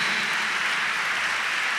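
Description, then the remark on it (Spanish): A crowd claps steadily, a dense, continuous wash of many hands that stays even in loudness throughout, with no voices standing out, as the audience welcomes a visiting monsignor. “Bueno, hoy, como otra vez más, está acá y lo vamos a recibir con un fuerte aplauso.”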